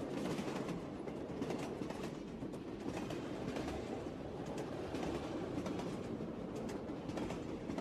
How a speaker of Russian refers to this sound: Чек-чек-чек-чек. Выстукивали свое вагонные колеса